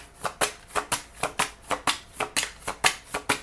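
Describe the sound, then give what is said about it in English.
Tarot cards being shuffled in a quick, steady rhythm of crisp riffling bursts, roughly a dozen sharp flutters with no voices. “Can we clarify the cards on the table?”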